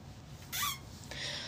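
A short, high chair squeak with a rising-and-falling whine, followed by a softer scraping creak. It sounds fairly quiet, with no talking.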